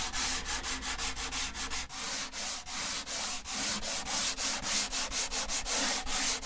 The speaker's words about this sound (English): This same process is done with the planing of his archtop guitars. He's got the top half of the guitar in front of him, and he'll plane it down to begin forming the arch.